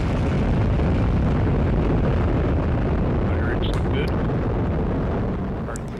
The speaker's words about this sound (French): Voilà, c'était le son de la mission Osiris Rex partie en 2016 de Cap Canaveral en Floride. Cette mission euh, américaine, elle est partie elle, vers l'astéroïde Bennu